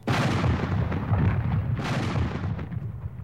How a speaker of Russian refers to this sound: Грянули два выстрела, дети оглушительно заорали, и князь выступил из заклубившихся над мортирой облаков дыма.